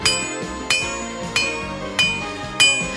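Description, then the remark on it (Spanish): A hammer drives a chisel into a tin can with five sharp, evenly spaced metallic strikes, each ringing briefly afterward, cutting along the edge of the can to open it. The blows are fairly loud, with no voices. “Corte siguiendo el borde de la lata con un cincel y un martillo”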